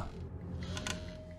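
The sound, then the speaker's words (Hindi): A low wooden creak rises and eases in a slow rocking rhythm, with faint mechanical squeaks layered on top, moderately loud, with no voices; a rocking horse in a dark hall rocking on its own with no one sitting on it. “कि तभी लाइट्स अपने आप बंद हो जाती है और वो रॉकिंग हॉर्स हिलने लगता है वो डरते डरते उस रॉकिंग हॉर्स की तरफ देखते हैं उस पर कोई बैठा नहीं था”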